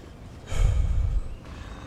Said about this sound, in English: stops and leans against a tree, panting.